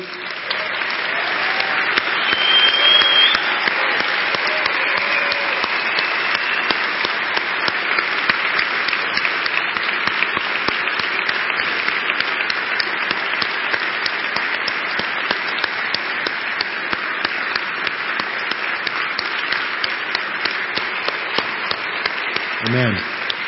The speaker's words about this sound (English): Wow. I hope you feel the heart behind that applause.